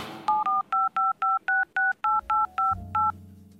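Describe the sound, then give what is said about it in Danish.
A telephone number is dialed on a touch-tone keypad to call a Christmas expert: about eleven crisp, evenly spaced beeps in quick succession, with a low hum creeping in toward the end. “Øh, øh, øh, jeg ringer med det samme.”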